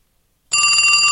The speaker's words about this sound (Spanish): Sigue llegando. Pará, pará. Me explota el teléfono.